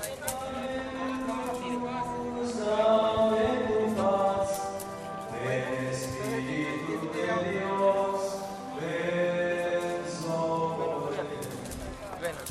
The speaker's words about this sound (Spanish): Ah, había hay música dentro de la iglesia, voy a asomarme un poquito, solo hasta la puerta. Solo hasta la puerta, para oír.